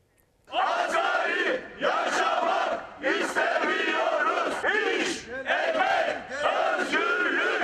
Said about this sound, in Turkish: Hadi o zaman İstanbul Maltepe Belediyesi'ne bağlı, bağlı olarak çalışan işçilerin eylemine gidelim.